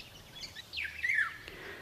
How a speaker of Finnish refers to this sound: Siellä Piensaimaan hulppeissa koivu- ja haapatemppeleissä söi ihmeellinen sävel. Taipalsaaren maaukot sanoivat sitä kuhankeitteeksi, koska vihellys kuulosti siltä, kun joku olisi huikannut kuha kiehuu.